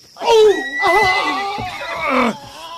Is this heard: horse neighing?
yes